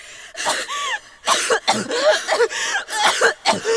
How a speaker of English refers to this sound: What's wrong with her? Why can't she breathe?